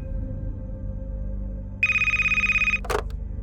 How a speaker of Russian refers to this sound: Я пошел на кухню, чтобы налить себе немного виски, как вдруг телефон снова зазвонил.